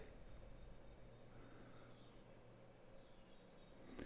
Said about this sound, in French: Voilà, il y a les oiseaux. 7h moins le quart. Vous entendez